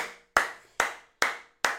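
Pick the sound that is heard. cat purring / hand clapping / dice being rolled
hand clapping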